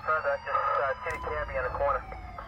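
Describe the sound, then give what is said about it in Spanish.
Emergency sirens from a police patrol car and an ambulance sent to an emergency call wail and warble continuously, loud, layered over one another above a low traffic rumble. “pero los servicios de emergencia rastrearon la llamada y se apresuraron a mandar una patrulla y una ambulancia.”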